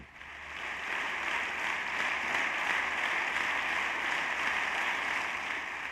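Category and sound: crowd, applause in parliament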